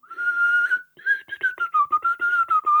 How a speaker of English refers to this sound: I can whistle perfectly serviceably, uh, breathing air in, but outwards, really unreliable. I'm not very good at it at all. I've never got the hang of it. Go on, give give us a little inward whistle. So inward whistle.